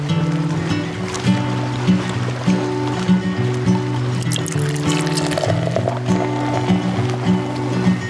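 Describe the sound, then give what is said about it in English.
Coffee pours steadily into a cup for several seconds, a continuous trickling with a rising fill tone and a few gurgles along the way. No one speaks. “So, with that, pour yourself a cup and let's get to it.”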